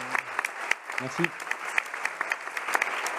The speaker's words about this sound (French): Je crois qu'on peut l'applaudir et le remercier d'avoir.